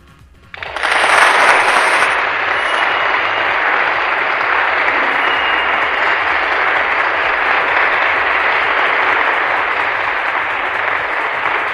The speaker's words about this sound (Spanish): Aplausos, por favor.